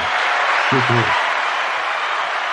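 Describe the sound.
A loud ovation of dense, steady applause from a crowd fills the whole clip, with a brief voiced shout or cheer rising above it early on.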